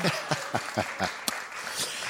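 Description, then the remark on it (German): A small group of theater audience members clap in a quick, steady rhythm for about a second, then the clapping thins out into a few scattered claps, with one sharp, bright clap standing out. “Bitte einmal klatschen.”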